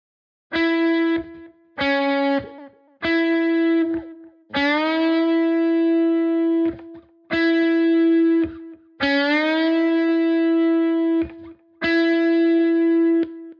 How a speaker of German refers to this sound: Wenn du beim Halbton und ganzton noch keinen Schmerz verspürt hast, dann mach dich jetzt auf was gefasst. Denn ab hier kann es richtig eklig für deine Fingerkuppen werden. Also hier das Beispiel mit eineinhalb Ton Bending.